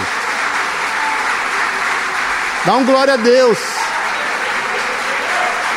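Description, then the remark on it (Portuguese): An audience claps steadily throughout, giving a round of applause to God, a dense, even wash of applause, while a man's voice briefly calls out over it midway. “Dá uma salva de palmas a Deus, você não pode ficar quieto com isso.”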